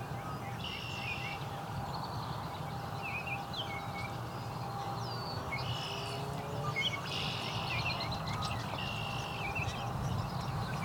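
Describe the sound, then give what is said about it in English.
A Baltimore oriole sings in short, bright whistled phrases that repeat every second or two, fairly faint over a steady low rumble of background noise. “Baltimore Orioles still singing quite a bit.”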